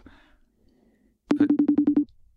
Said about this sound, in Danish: For han tager ikke telefonen.